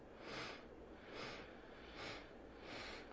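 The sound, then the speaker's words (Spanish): Four short, airy sniffs drawn in through the nose at an even pace during a breathing exercise, a segmented inhale breaking one breath into four steps. Soft and fairly quiet, with no talking. “Escuchas tu inhalación en cuatro. Es una inhalación segmentada.”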